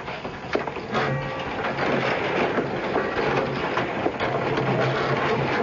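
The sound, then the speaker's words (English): An old wooden boathouse door is pushed open with a brief knock, then a long, steady grinding scrape and a few thin creaks as it drags along, fairly loud and with no voices. “Let me open the old door.”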